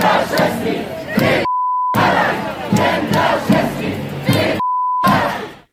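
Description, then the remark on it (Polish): A large street crowd at a demonstration in Kraków, Poland, over abortion chants loudly in rhythmic bursts, continuous, interrupted twice by a steady electronic bleep where the chanting drops out. “Posłuchajmy może e, tego, jak, e, jak przebiegała demonstracja choćby w Krakowie.”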